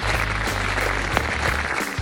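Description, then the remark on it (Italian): A steady wash of applause, dense crackling clapping that holds at an even, fairly loud level for about two seconds, with a low hum underneath and no voices. “Applausi, applausi.”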